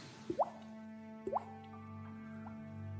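Falling water: two clear drips plop one after another about a second apart, each with a quick rising pitch, followed by fainter drops from water down at the bottom and a steady low hum underneath.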